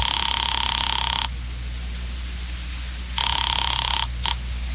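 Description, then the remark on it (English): A telephone rings through the handset line of a call placed from a phone booth, a long electronic trill lasting about a second, then a pause and a second ring cut short, with a low hum underneath and no voices. “A little after five, I went to a phone booth and called my client”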